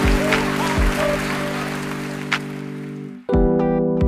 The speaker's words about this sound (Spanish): A ver esa ovación. Bravo, bravo. Grandes aplausos para todos.